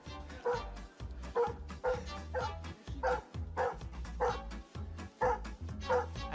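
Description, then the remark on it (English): A husky barks and whimpers in quick, repeated bursts, about a dozen yelps and whines in a steady rhythm, moderately loud, with no talking. “And lots of dog owners are posting their results online.”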